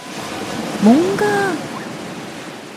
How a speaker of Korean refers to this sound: 저희 첫 번째 여름소리 퀴즈, 제주도 바다 소리를 찾는 거였는데요. 정답은? 2번입니다.